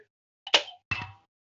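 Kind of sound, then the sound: household object, drinks clinking together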